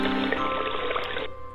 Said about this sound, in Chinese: 暴雨过后，小溪里的水比平时多了很多，哗哗的流着。